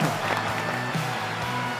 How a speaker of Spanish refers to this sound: Un poco de aplauso, pongan algo, loco, hagan algo. No, más, más, como más ovación.